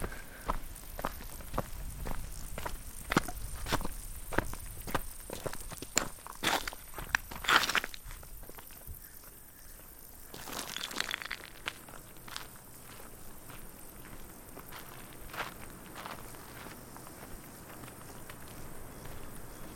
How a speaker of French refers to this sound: pas après l'autre, je redescends à mon rythme.